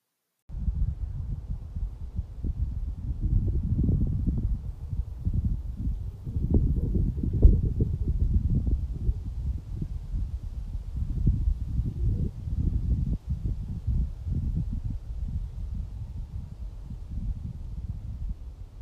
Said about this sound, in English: It's windy. There's nothing to block the wind anymore. And there's some distant motors. But the buzz of nature is gone.